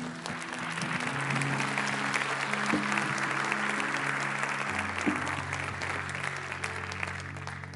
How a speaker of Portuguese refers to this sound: Aplauda o Senhor, por favor.